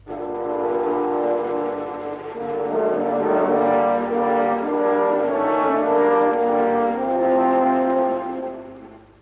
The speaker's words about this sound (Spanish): es el tema del lobo, de Pedrín y el lobo, el cuento de Prokofiev